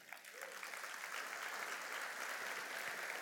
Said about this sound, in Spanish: Dele un aplauso al rey.